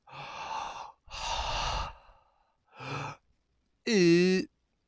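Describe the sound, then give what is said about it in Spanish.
Heavy, drawn-out breaths heard over a telephone, three loud airy exhales in a row, followed by a short voiced sigh that rises in pitch, fairly loud with nothing else around; a caller breathing on the phone in Malcolm in the Middle, Stevie, Malcolm's asthmatic friend. “Eh, Lois contesta el teléfono de la mamá de Malcolm y suena una respiración en el teléfono.”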